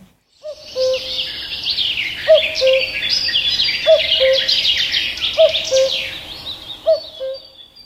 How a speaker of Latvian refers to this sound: nu kas tur kulkoja? Dzēguze. Dzēguzīti, jā.